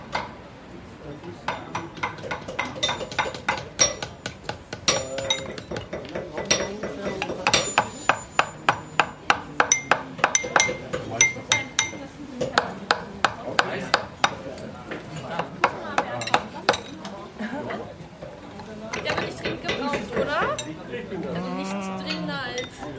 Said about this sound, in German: da sitzen vier Menschen um einen Baumstumpf drumherum und haben äh, Hammerwerkzeug in der Hand und auch äh, so, so, chronische Eisenstäbe oder Stäbe jedenfalls, auf denen dann Metallringe liegen